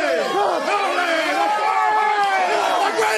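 A large crowd yells and chants "Oli, Oli" together, a dense, loud roar of many voices rising and falling in pitch without a break for the whole stretch.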